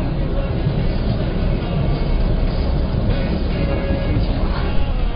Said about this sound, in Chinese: 火车呼啸而过。 对，大家现在可以听到了火车的声音，过去一下。